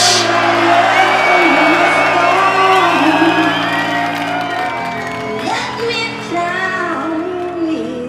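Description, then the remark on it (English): A loud crowd cheers and whoops for the AMC without a break, many voices overlapping in high, rising yells and shouts that stay strong for the whole stretch. “Somebody make some noise for the AMC, please.”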